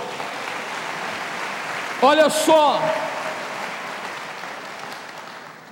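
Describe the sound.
An audience claps steadily, applauding the glory of God at a man's call, a dense, even wash of applause that continues for several seconds while a man briefly speaks over it.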